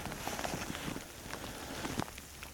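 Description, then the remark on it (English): Light drizzle, following heavy rain, patters steadily outdoors in the mountains at sunrise, a soft continuous hiss broken by scattered small drops tapping surfaces, with no voices. “The sun is just coming up over the uh, mountains over there, and um, you and I, when I woke up at four o'clock, there was heavy rain, which has turned into kind of a, a drizzle.”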